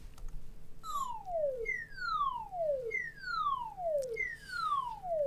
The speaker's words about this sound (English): Yeah, I mean that uh, that almost sounds like uh, an evac siren, right? Yeah, yeah. That's, that wasn't so, funny.